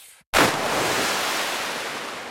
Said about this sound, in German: Da hören wir Wasser, leider kein Treffer.